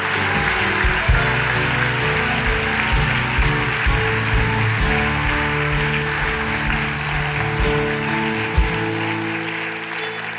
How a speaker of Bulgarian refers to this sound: Ръкопляскай на човека до теб сега.